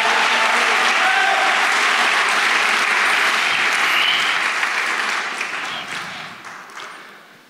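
A crowd breaks into loud, sustained applause, a dense wash of many hands clapping that holds steady for several seconds before gradually tapering off.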